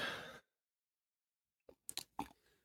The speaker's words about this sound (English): All right. Let me take a sip of my bourbon.